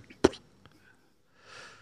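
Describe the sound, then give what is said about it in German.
A single sharp sneeze bursts out, then quiet, followed by a soft breathy exhale a moment later. “Gesundheit, … hat gerade genießt.”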